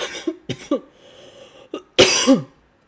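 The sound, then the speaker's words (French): A person coughs several times: a few short, sharp coughs, a pause, then a louder, harsher final cough with a raspy tail. No speech. “Vous avez vu, je tousse un petit peu quand même.”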